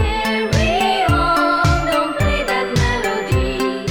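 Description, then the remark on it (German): A sparse, minimalist electronic music track loop with a steady, evenly spaced kick-like pulse under bright, bell-like tinkling tones and sustained synth notes, played loud with no voices. “So ein geiler, relativ minimalistischer Elektro-Track ist … von ….”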